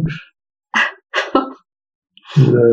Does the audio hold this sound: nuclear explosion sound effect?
no